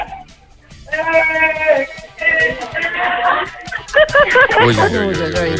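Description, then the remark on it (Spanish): A team of people shouts and whoops at once in a loud, ragged, uncoordinated burst of cheering, voices overlapping out of sync for several seconds after a brief quiet start. “A ver, que los escucha y hacer un poco de ruido, que animen el cotarro.”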